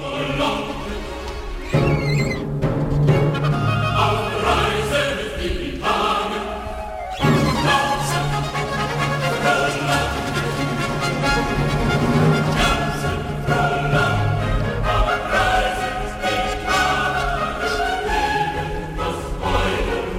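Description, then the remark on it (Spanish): Energetic, cheerful baroque choral-orchestral music plays loudly and continuously, with bright strings, trumpets and timpani driving a brisk, festive rhythm throughout, no talking over it. “el Christmas Oratorio número 248 de Johan Sebastian Bach, que suena así, de enérgico y alegre”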